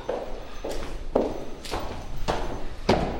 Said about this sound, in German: So, jetzt sind wir in der VG Bad Neustadt. Das ist der Sitz von unseren sieben Gemeinden. Wir gehen jetzt mal die Treppe hoch.